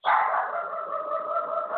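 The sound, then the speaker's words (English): A small female dog lets out a single drawn-out, high-pitched bark that stretches into a whining howl, loud, with no one talking. “I would like to stifle a little dog, but we're going to have to live with her right now.”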